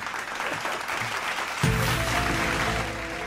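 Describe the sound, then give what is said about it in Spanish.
An applause sound effect: dense, steady clapping runs throughout, and about halfway through a sustained low tonal chord joins in and swells the sound until it eases slightly at the end. “Teoría de conspiración con aplauso.”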